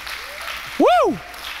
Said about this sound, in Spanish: Alguien aquí ha sido renovado por Cristo Jesús. Dale ese aplauso fuerte al Rey de Reyes, amén.